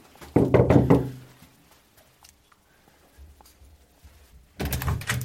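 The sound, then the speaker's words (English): A quick series of four firm, loud knocks on a front door, followed by a few seconds of near silence before another burst of noise at the door. “And although his posts were angry, he was polite when we were messaging, just like he was when we knocked on his door.”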